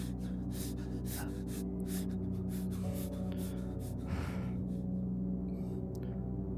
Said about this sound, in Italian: Sta respirando affannatamente.